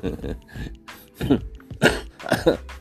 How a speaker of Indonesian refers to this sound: aduh sampai batuk-batuk ya